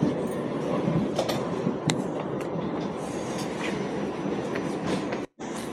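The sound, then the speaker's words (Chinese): A subway train rides along the rails with a steady, loud rumbling roar, scattered clicks and rattles on top, and no voices; the sound cuts out briefly just before the end. “刚才这一段是我在地铁上，呃，乘坐的时候听到的一段祈祷的这个台词，不知道大家能不能听得清”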